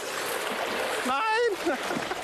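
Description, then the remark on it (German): Strong river current rushes and splashes loudly and steadily, a continuous watery roar, as it sweeps away a net set in the river to catch microplastic particles, with a brief shouted voice breaking through partway in. “Die starke Strömung reißt das Netz mit.”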